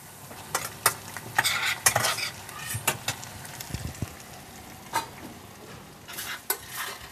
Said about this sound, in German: Fertig zubereitet werden die Gläser dann in Sichtweite der Gäste. Das Gemüse nochmal schnell angeschwitzt, das Fleisch kurz erwärmt und dann ab ins Glas.